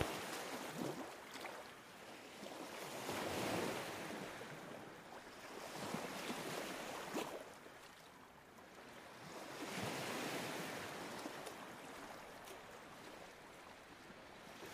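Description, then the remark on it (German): Ocean waves roll in and wash up on shore in slow, steady swells, a broad hissing surf that rises and falls every few seconds, with no voices. “Die geführte Meditation hilft dir mit Meeresrauschen beim Einschlafen.”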